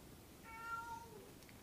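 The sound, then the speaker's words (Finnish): A single short cat meow, fairly faint, rising and falling in pitch over a low background hum with no talking. “No joo, siellä se kissa tulee nyt paha missä mainita.”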